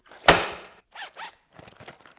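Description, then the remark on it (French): A pencil case lands on a desk with a single solid thud that quickly fades, followed by a few short rustling, zipper-like scrapes. No one speaks. “Bruit de la trousse qui atterrit sur le bureau.”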